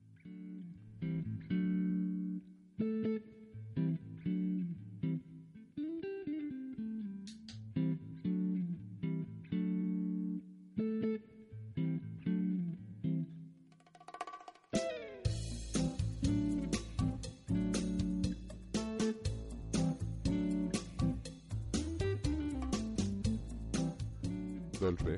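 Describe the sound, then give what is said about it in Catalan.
A short section intro jingle for the show's first section plays on its own: a bright, reedy melody over steady chords, then about halfway through a full band with driving drums and cymbals bursts in, loud and lively. “quan sentim aquesta musiqueta, ja ho hem dit abans qui, qui tocava, però és bo recordar-ho, el senyor que conta papallones.”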